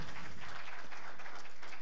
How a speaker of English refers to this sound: Isn't she absolutely phenomenal? Let's applaud again.